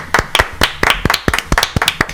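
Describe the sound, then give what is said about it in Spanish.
Brief applause from a few people on a program, called for by one of its three hosts: quick, uneven claps overlapping in a loose rhythm, sharp and fairly loud, with no voices over them. “Aplaudan.”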